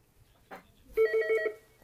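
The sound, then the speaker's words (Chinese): A telephone rings during a Mandarin-language talk show and is about to be answered, a loud, high electronic warble, four rapid pulses in quick succession, followed by the start of another ring. A soft rustle comes just before it, and nobody speaks. “先接电话。”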